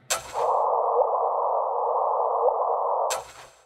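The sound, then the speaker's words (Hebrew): A gravitational wave signal detected by LIGO on 14 September 2015, from a collision of two supermassive objects billions of light years away, rendered as sound: a steady, buzzy mid-pitched tone holding for about three seconds, with a sharp burst at the start and another just before it cuts off. “מכיוון שאפשר לתרגם את הגלי כבידה לתדר של גלי קול, זה מה ששמעתם עכשיו.”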